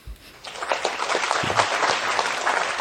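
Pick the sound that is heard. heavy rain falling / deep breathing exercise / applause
applause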